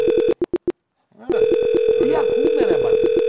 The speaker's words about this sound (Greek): Ακούμε το τηλέφωνο που χτυπάει. Το τηλέφωνο που χτυπάει, ναι.